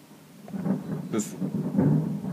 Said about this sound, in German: Das hört ihr wahrscheinlich jetzt in der Aufnahme. Das war ein Donner. Ein Donner. Bei uns scheint es gleich ein Gewitter zu geben.